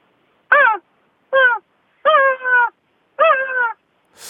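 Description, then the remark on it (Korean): Someone imitates a seagull irritated at not being given Saeukkang shrimp crackers, with four loud, whiny cries that slide downward in pitch. The last two are longer and wobble, separated by brief silences. “이거 새끼 새끼 염소 뭐 이런 소리 같은데 갈매기 같지는 않아.”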